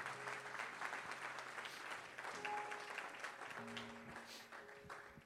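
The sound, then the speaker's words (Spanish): An audience claps steadily in applause to the Lord, a dense, continuous wash of applause lasting the whole stretch, with held low musical chords sounding faintly beneath it. “Alguien que lo crea y que le dé un aplauso al Señor de fe.”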